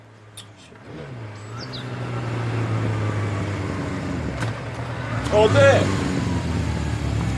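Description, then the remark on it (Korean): A motorcycle engine starts up and idles with a low, uneven sputter that builds into revving, running steadily while a person briefly speaks over it. “아무 일도 없었는데 멀쩡하던 오토바이가 왜불밀거리냐고”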